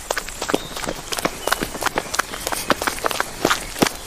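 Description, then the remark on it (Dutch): Quick, hurried footsteps pound along at a running pace, dozens of sharp impacts in an uneven rhythm over a faint background hiss, moderately loud, with no talking. “Rennen!”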